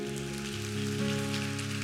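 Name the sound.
audience applause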